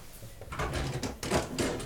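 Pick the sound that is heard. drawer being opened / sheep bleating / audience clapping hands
drawer being opened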